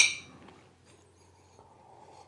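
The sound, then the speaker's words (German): A single bright clink of glasses touching in a toast with a caffeinated lemonade, ringing briefly at the start and fading into quiet. “Ja, Prost. Ah, Prost.”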